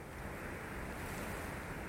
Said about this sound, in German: Auf der Anhöhe zischt den drei Pilgern ein scharfer Wind um die Ohren.